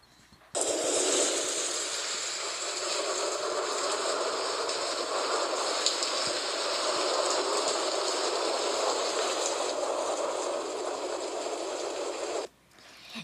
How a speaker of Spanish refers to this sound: Pero caía un fuerte, fuerte aguacero.